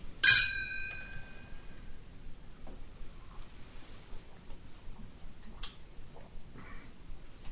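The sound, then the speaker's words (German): Two glasses of Burgundy wine clink together once at the start in a toast to 27 years of marriage, a bright ringing tone that fades over about a second, then quiet background with a few faint small taps. “Und so trinke ich denn auf unser 27 Jahre währendes Eheglück, gemildert durch kleinere Streitereien und große Kinder.”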